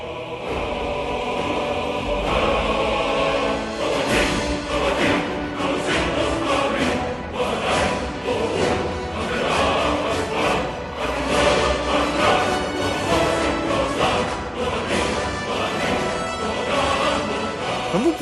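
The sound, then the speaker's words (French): Loud, epic orchestral title-screen music from a video game, with a deep male choir and booming percussion, playing continuously and densely for the whole stretch with no talking over it. “Bon allez, on va écouter un petit extrait euh, juste pour, pour le plaisir de l'écran de titre qui annonce quand même la couleur du jeu.”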